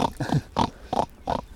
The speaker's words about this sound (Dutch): het eerste wat gewoon meteen in me opkwam, was het geluid van een eh, knorrende jak